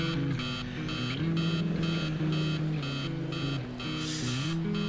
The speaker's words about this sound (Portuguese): A janela estava aberta e eu podia escutar o som de um trânsito intenso.